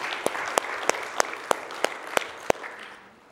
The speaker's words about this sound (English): Come on, let's give the Lord a hand clap if you wouldn't mind, please.